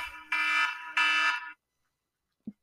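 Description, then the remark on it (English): A phone's bedtime alarm goes off with two loud, buzzy electronic bursts, each lasting about half a second, followed by silence and a brief low thump. “My um phone was like, "Bitch, it's bedtime. The fuck are you doing not in bed?"”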